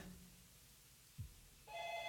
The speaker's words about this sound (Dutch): Ja, de telefoon gaat over, dus u kunt bellen.